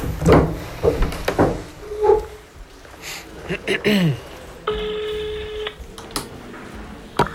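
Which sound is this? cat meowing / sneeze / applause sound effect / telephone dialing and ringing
telephone dialing and ringing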